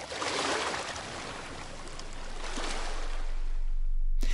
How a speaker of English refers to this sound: The number of waves that crash during a specific period of time is called the frequency.